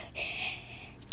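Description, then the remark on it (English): A single sneeze bursts out as a breathy, hissing rush of air that lasts under a second, moderately loud, with no talking around it. “Oh, bless you.”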